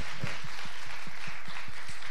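A crowd applauds with a steady patter of many hands clapping, and a few sharper individual claps stand out at a regular pace above the broad wash of sound.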